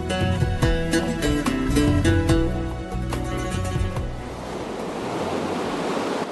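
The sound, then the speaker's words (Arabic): A musical passage gives way to the steady, rushing roar of ocean waves breaking, a broad continuous wash of surf filling the final seconds with no voices. “هبت عاصفة شديدة على سفينة في عرض البحر فأغرقتها ونجا بعض الركاب منهم رجلا أخذت الأمواج تتلاعب به حتى ألقت به على شاطئ جزيرة مجهولة ومهجورة”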